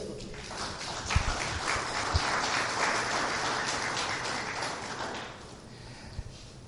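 A crowd applauds a married couple steadily, a dense wash of clapping that holds for about five seconds before thinning and fading, with a few sharper individual claps and taps standing out.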